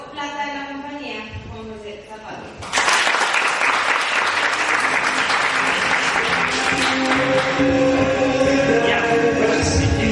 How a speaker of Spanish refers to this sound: Pues digamos con un fuerte aplauso